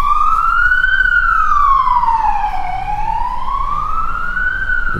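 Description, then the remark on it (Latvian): An emergency vehicle siren passes, wailing loudly and steadily, its pitch sweeping slowly up and down in a smooth cycle, with road rumble underneath and no talking. “Jā, izbrauc. Sire... Mašīna ar sirēnām tik vairāk.”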